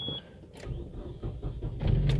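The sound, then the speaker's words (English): A car engine with a draining battery cranks with a rough, uneven rhythm, then hesitantly catches and rumbles louder near the end, with no talking. “Yeah, the car is starting, but it's kind of like, it's kind of hesitating.”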